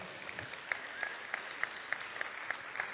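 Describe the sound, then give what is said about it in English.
An audience applauds, a steady wash of many hands clapping with a few sharper, louder claps standing out at a regular beat. Moderately quiet and fairly even throughout, with no talking. “we can clap for that”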